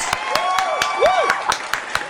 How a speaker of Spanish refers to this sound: Oye, bravo, un aplauso para este chico. Pongan por favor ahí unos aplausos.